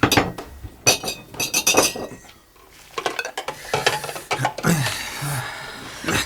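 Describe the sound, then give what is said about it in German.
Glasses clink and rattle together as they are gathered and moved, a run of bright chinks with a quieter pause midway before more handling resumes. “Ich muss mich um die Gläser kümmern.”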